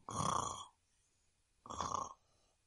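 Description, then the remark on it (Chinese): A voice imitates a little cat snoring loudly as it falls asleep by a warm stove: two rough, rasping snore sounds, the first longer, separated by a brief quiet pause. “啊，哦，慢慢的，它睡着了，还大声的打起了呼噜。”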